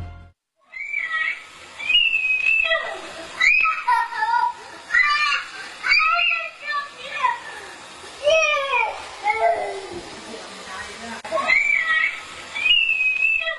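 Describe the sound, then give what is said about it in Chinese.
A child cries miserably for over ten seconds in a household in Xi Village, Xingtang County, Hebei, with high, shrill wails that rise and fall in long, wavering bursts broken by brief gasps for breath. “这近乎凄惨的哭声来自河北邢塘县席村的一户人家。”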